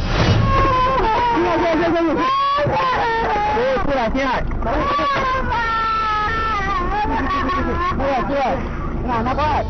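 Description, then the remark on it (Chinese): A little girl cries loudly inside a small car that has just crashed at 4:42 a.m. in a tunnel on the Shanghai–Kunming expressway, Dongjiang town, Jinchengjiang district, Hechi. She wails and sobs in rising and falling high-pitched bursts over a steady low rumble of engine and road noise. “只听到一名小女孩在车内大哭，并不断的喊叫。”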